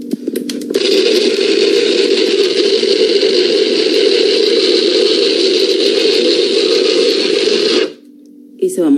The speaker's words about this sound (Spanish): Así va quedando nuestro pescado para que vean que sí se puede moler en la licuadora. Lo único que hice es agregarlo, no, no necesita nada de agua.